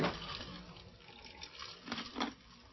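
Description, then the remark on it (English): Water pours in a steady, splashy trickle that rises into two brief louder gushes near the end, with no talking. “Come on, where's my water?”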